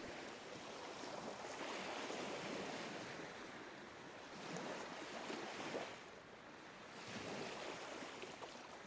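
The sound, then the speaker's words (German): Ocean surf rolls in continuous waves, swelling and receding in a slow rhythm roughly every few seconds, a broad steady wash of water with no voices. “Kannst du die Geräusche der Natur wahrnehmen?”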